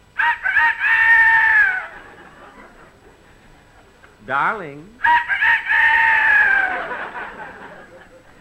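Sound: rooster crowing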